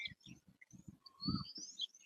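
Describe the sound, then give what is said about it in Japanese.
Birds chirp and whistle outdoors in India in thin, high, sweeping calls, fairly faint, layered over a low, steady pulsing rhythm underneath, with music from Samadhi also audible. “このなんかサマディから流れている音楽も聞こえるのかな鳥の声の方が聞こえるのかなどのくらい音を拾ってるんだろうあ、両方聞こえます。”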